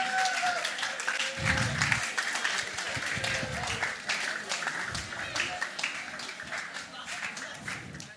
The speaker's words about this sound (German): Aber gebt den Leuten mal einen richtig fetten Applaus.